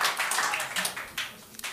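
A short burst of audience applause, a dense, steady patter of many hands clapping at moderate loudness that thins out slightly toward the end.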